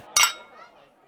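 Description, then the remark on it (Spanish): A single bright clink of wine glasses touching in a toast during a wine tasting at a winery, ringing briefly before fading under a soft murmur of background voices. “Los padres y yo cataremos alguno de sus vinos mientras las chicas disfrutan de un refrescante zumo de uvas.”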